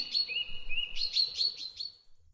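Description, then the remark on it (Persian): Bright, high-pitched birdsong from birds singing among the trees, with rapid chirps and trilling phrases, clear, repeating in quick bursts for a couple of seconds before fading out. “پرنده ها در لابلای درختان آواز میخوانند”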